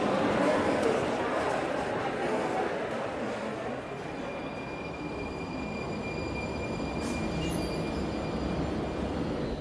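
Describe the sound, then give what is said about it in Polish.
Steady, dense rumble of a metro train running in Prague, loud, with faint high whining tones and occasional clatter throughout, as if heard from inside a carriage. “Bardzo rzadko w Pradze jeżdżę metrem, no ale dziś tak się złożyło, że jedną z podróży właśnie tym środkiem lokomocji muszę odbyć.”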